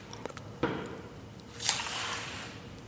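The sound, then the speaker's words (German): Quiet, slow shuffling steps of a performer with a stick, coming from the back of a dark theatre toward the front of the stage: a soft tap, then a longer dragging scrape that swells and fades, heard alone against a faint background hush. “Man hört nur die schlurfenden Geräusche meiner Schritte.”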